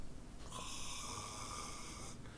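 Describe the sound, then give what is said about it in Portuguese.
A person fakes a snore while pretending to sleep, with one long, raspy, breathy rumble lasting nearly two seconds, fairly loud, with no talking around it. “aí eu peguei e falei, ah, é, beleza, e dormindo aqui, ó.”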